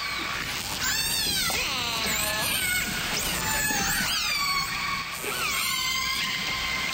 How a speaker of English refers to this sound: Is it a marine animal? It is, yes. A porpoise? No. A manatee? Nope. Some kind of a whale? It is some kind of a whale, yes. Is it a blue whale? No.